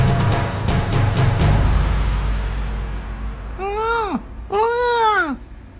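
A newborn baby who has just woken cries loudly in two drawn-out, wavering wails, each rising then falling in pitch, after a few seconds of low rumbling background noise with faint clicks.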